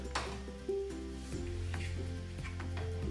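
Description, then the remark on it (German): Ice cubes drop into cups with a few sharp, scattered clinks and some faint crackling, set against a steady low hum in the background. No one speaks. “Eiswürfel.”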